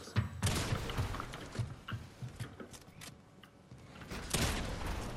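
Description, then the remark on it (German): Repeated video game gunshots crack out in an irregular volley, with sharp bursts scattered throughout and a denser flurry near the end, all against busy game background noise with no talking. “Ich guck auf Karte, auf einmal höre ich einen Schuss und denk, du bist tot.”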